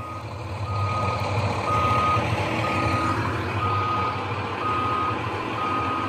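truck reversing beeps

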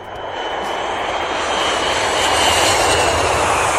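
airplane engine sound effect

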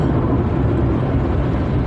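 car driving noise

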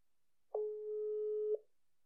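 telephone call ringing tone

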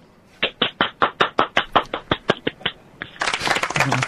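applause

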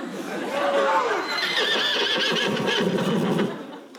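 horse neighing

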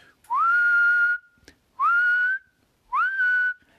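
whistle being blown

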